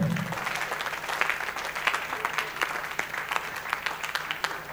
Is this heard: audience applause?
yes